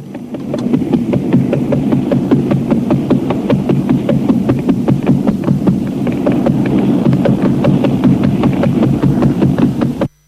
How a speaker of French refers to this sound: le deuxième était un pulsar qui faisait 6 tours par seconde